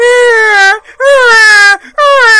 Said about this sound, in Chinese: 还在这哭，他也不知道是这个灯光不好啊，还是怎么着，反正听这个孩子哭的呀，就这么难听。